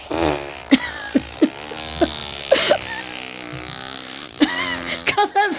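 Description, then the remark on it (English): Someone blows a long, sputtering raspberry with their lips, a buzzy fart sound that wobbles and pops in several bursts for a few seconds, with no talking. “my face is always a fart noise face. Come on. You're a fart noise.”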